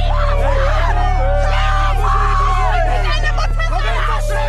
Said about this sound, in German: Was wir hier gerade hören, haben meine Kolleginnen und Kollegen von Spiegel TV vor knapp zwei Wochen in Kassel aufgenommen. Eine Demonstrantin schreit eine Gruppe von Polizisten an, eine Schutzmaske trägt sie nicht.